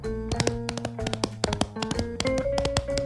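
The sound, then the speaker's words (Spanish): A rapid galloping rhythm of hollow thumps, made by cupped hands striking a chest to imitate horse hooves, steady with no talking. “Hacían caballos con, el pecho. Si quieres, si te puedo, si, si te, alcanza a escuchar, es lo que hacían, se golpeaban con las manos en forma de, de cóncavo.”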